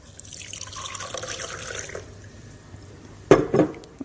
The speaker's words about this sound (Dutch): Ik heb hier ehm, twee flessen. Een eh, vieze en een schone. En als ik hier water doorheen laat lopen, dan denk ik dat je snapt wat er gebeurt.